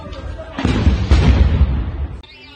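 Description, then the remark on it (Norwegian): Gunfire during an armed coup attempt in the capital of Guinea-Bissau, as heavily armed men tried to enter the government building, erupts in a dense, sustained burst of loud cracks and booms that blur together into a roaring barrage, rising suddenly after a quieter opening and cutting off abruptly near the end. “Kaos og skyting i hovedstaden i det afrikanske landet Guinea-Bissau tirsdag denne uka.”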